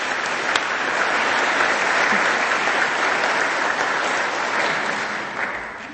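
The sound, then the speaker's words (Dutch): An audience claps steadily after a music performance, a dense wash of many hands that holds fairly even for the whole stretch and begins to thin slightly toward the end. “En dank, ja, nog een applaus.”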